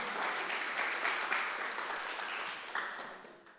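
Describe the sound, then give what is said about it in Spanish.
A crowd applauds someone who answered a question before it was finished, with steady, dense clapping that stays fairly loud throughout, then gradually thins and fades toward the end. No one speaks over it. “Muchas gracias y un aplauso porque aún ni terminaba la pregunta y ya sabía la respuesta.”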